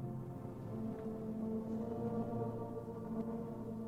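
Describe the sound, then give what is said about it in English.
Quiet, muffled tape-loop music of sustained low droning tones, worn and fading, with a few faint, sparse clicks scattered through it and no voices. “You could hear like a little bit of clicking, like it's it's really starting to disappear.”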